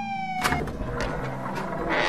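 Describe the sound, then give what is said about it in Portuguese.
A police siren of local police arriving in Santos wails briefly at the start, then gives way to loud, rumbling street noise with vehicle sounds and bursts of hiss, no voices. “As sirenes já eram ouvidas. Os policiais locais de Santos chegavam para resgatar Bárbara e Adriano.”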